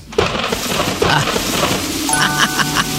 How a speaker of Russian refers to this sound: Маэстро, э, будьте добры, дождь.